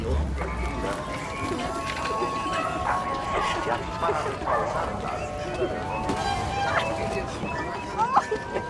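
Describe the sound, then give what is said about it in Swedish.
Dogs bark and yip amid a busy outdoor street ambience in Mexico City, 1971, with a murmur of voices and general street bustle underneath; the barking is moderately loud and intermittent. “så mycket fågelkvitter och, och, och olika barnskratt och hundar och, och, liksom trafik och det är så många olika ljud som hela tiden bygger upp den här vardagen som vi befinner oss i.”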